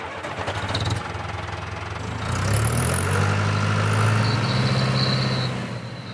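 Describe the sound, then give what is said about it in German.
A tractor engine runs steadily, its low rumble rising and growing louder midway as it turns in a field plot while planting potatoes, with faint mechanical whines and rattles on top. “Der Traktor wendet und schon bald sind auch in der letzten Parzelle Kartoffeln gesetzt.”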